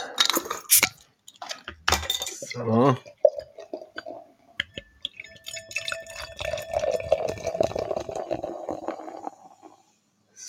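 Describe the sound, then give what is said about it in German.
A bottle of Exquisit beer, labelled Braumeisters Liebling, is opened with a few sharp clicks and a hiss, then the clear, golden, filtered beer glugs out and pours steadily into a glass for several seconds; a voice says one brief word. “Und ja, wenn wir mit dem anfangen wollen, dann hauen wir das doch mal ins Glas.”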